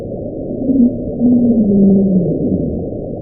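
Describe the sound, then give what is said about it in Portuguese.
A low, muffled underwater sound recorded by NOAA hydrophones on 1 March 1999: drawn-out moaning tones that swell and slowly glide downward over a steady murky rumble, continuous and fairly loud, with no voices. It lasted about 2 minutes 43 seconds and was heard across the hydrophone array of the Equatorial Pacific Ocean. “Como eu já disse, gravado em 1 de março de 1999, também pela NOAA, o Júlia durou aproximadamente 2 minutos e 43 segundos e foi alto o suficiente para ser ouvido por toda a gama de hidrofones do Oceano Pacífico Equatorial.”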